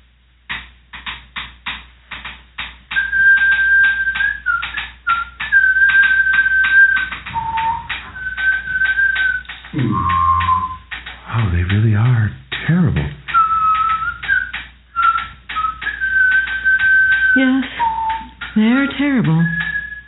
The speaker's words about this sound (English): Speaking of Canada, today's musical interludes are field recordings by indigenous lesbian repurposed percussion and penny whistle duo